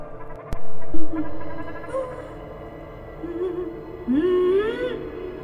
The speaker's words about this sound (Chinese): 这是一个女人的哭声吧？